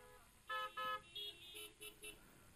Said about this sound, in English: Even if there's one honk.